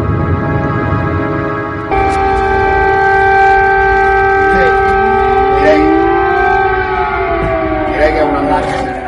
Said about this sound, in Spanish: Suenan sirenas de ataque aéreo en todo Kiev.